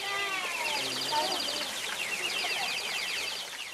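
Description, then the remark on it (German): Water-powered organ pipes at the Fontana della Civetta (Owl Fountain) imitate birdsong in a steady tangle of high, warbling trills and rapid chirps, working on the same technical principle as the musical fountain. The sound is bright and continuous, with no talking. “Nach dem gleichen technischen Prinzip wie beim musikalischen Brunnen imitieren hier die Orgelpfeifen das Singen von Vögeln.”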